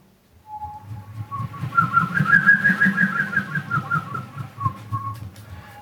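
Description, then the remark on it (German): A small tube is blown to make a wavering, fluttery whistling tone that rises in strength and holds for about five seconds over a low, breathy rumble, with no talking. “Probieren wir das Röhrchen aus.”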